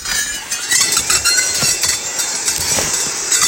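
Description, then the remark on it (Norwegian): An electric brush cutter runs steadily, giving a continuous high, hissing whine with scattered sharp ticks and clinks as the blade clears away deciduous growth overtopping spruce. No one speaks. “Veldig behagelig med elektrisk ryddesag, altså.”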